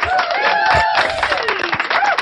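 Steady, loud applause from a crowd, continuous clapping with rising and falling whoops or cheers riding over it for a couple of seconds.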